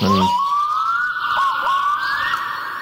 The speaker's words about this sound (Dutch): Dat is de parelduiker. prachtig, hè? Daar bestaan volledige cd's van, alleen maar dat. Van de parelduiker? Van de parelduiker, ja. Je komt voor in Scandinavië in die bossen.